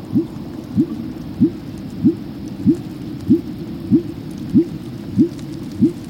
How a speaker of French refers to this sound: Et donc les premiers scientifiques qui ont écouté ça, euh, donc c'est le son du rorcal commun, hein, ce son très ennuyeux, tellement ennuyeux et tellement monotone qu'ils ont publié en disant on entend les battements de cœur des baleines.